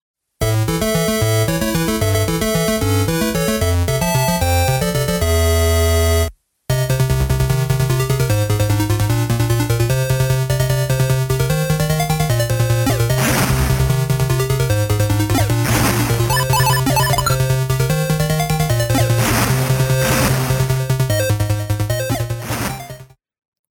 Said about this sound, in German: Das war von Konami, hat einen fantastischen, ich nehme an, 8-Bit war das damals noch, Soundtrack.